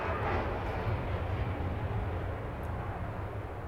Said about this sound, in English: pausing for the plane. Yes, we are full time time RVing. I'm in the middle of Idaho, and we're right next to the local airport as I speak in Sandpoint.